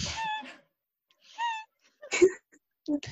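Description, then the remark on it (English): A person hiccups four times, each a short, squeaky, voiced catch in the throat, spaced about a second apart, fairly loud with quiet gaps between. “you literally sound like a small child who has yeah, the hiccups or no.”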